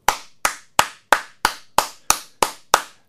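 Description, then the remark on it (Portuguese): One person claps their hands about nine times as a round of applause for President Jair Messias Bolsonaro, in a steady, even rhythm, each clap sharp with a quick fade and no talking in between. “Minha salva de palmas para o presidente Jair Messias Bolsonaro, mais um golaço de seu governo.”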